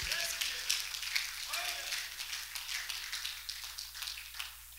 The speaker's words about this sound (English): Clap your hands to the Lord, He's worthy.